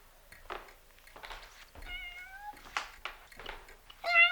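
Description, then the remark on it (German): A small cat meows several times in a row, with drawn-out tonal cries that rise and fall, the last one louder and sharper, with soft rustling between calls. “Hey, da ist ja eine der Katzen.”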